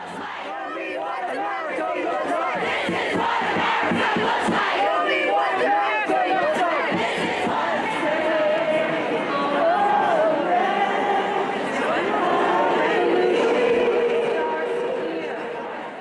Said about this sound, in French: Ce que vous entendez en ce moment, ce sont des voix, des sons. Enregistré le 21 janvier 2017 à Washington, pendant ce que les médias ont appelé la Women's March, la marche des femmes.